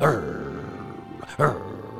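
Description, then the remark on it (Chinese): A voice imitates a hunting dog's low growl: two short, rough, low-pitched rumbles separated by a pause, each starting strong and then fading into a quieter drawn-out tail. “此时呢，猎犬就发出低鸣，”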